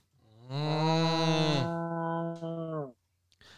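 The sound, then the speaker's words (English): A cow from a wandering herd in the streets of Welshtown lets out a long, loud moo lasting nearly three seconds, with a slight shift in pitch partway through, followed by a brief rustle at the end. No one speaks. “But um, yes, wandering cows stampede through the streets of Welshtown.”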